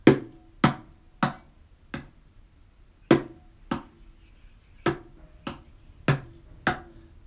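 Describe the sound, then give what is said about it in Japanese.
A mini cajon, a small wooden box drum, is tapped about a dozen times in an uneven rhythm, struck at a different spot each time, so each sharp knock sounds slightly different in tone, with short decays and quiet gaps between hits. No one speaks. “これどういうことかっていうとあの毎回違う場所を叩いちゃってるんですよこのトントントントンっていうのをあの同じ場所を叩くと同じような音色が出るんだけどこれを毎回こう変なところにこうずれていっちゃう感じ”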